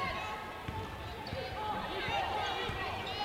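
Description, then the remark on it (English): A basketball is dribbled by a player backing up while guarded in a women's basketball game involving East Carolina, about four sharp thumps in a steady rhythm on a hard court, heard over a busy arena crowd with voices murmuring. “Backs up on the dribble, guarded there by Lyons”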